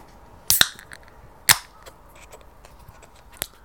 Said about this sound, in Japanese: ビール冷えてるのがあったので、ちょっと開ける音とかも。